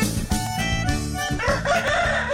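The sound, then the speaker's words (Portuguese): A rooster crows on the radio show Amanhecer Sonora, announcing a short commercial break, in a drawn-out, wavering call over steady background music with a regular low beat, the crow rising and falling in pitch and fairly loud. “Olha o galo, Leonardo.”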